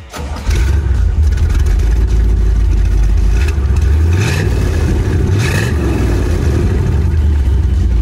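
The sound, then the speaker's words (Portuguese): A 1964 Corvette Stingray engine starts with a deep, heavy rumble, then idles loudly, revving up sharply a couple of times with rising roars before settling back. No one speaks. “E um dos meus favoritos, depois que eu andei, foi justamente o Corvette Stingray 1964.”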